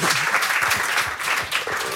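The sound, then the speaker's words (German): An audience applauds steadily, a dense wash of many hands clapping at a constant, fairly loud level without pauses, with faint voices mixed underneath. “ich wollte seinen Applaus nicht abwenden”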